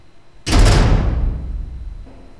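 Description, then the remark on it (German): A heavy cold-room door is pulled shut with one deep, loud thud, and a low rumbling resonance decays slowly into quiet for over a second afterward. “Dann zog er die schwere Tür hinter sich zu.”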